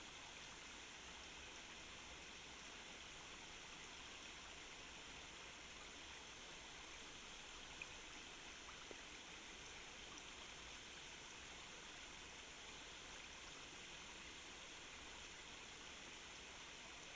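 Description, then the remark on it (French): A steady, continuous rush of stream water flowing and trickling over rocks, broad and even throughout with no pauses, heard alone without any voices. “écoute le bruit de l'eau glisser sur les roches.”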